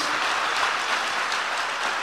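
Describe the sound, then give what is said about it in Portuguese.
A crowd applauds the Lord Jesus during a sermon, steadily, a dense, continuous wash of many hands clapping at once with no voices rising above it, holding an even loudness throughout. “Aplauda o Senhor Jesus.”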